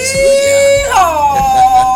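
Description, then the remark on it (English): A long drawn-out yeehaw yell, a steady held note that leaps higher and then slides slowly down, sounding loud and howl-like, with an added echo effect giving it a trailing quality. “You gotta give it that echo. You gotta give it that yeah, echo. it's a little bit of echo.”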